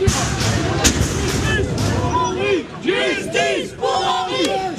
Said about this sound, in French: Dès que le mot acquitté est prononcé, la famille laisse éclater sa colère dans la salle d'audience. La cinquantaine de proches d'Henri L'Enfant sort en tapant dans les poubelles, dans les murs.